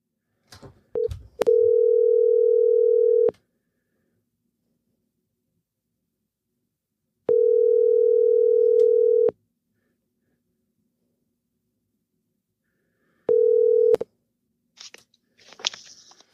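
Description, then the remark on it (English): A steady electronic telephone dial tone, heard after a phone call disconnected, sounds in three separate stretches, about two seconds each with long silent gaps, bracketed by handset clicks and fumbling at the start and end. No one speaks. “I had said Thunderbirds, and then the phone disconnected, and you were about to reply”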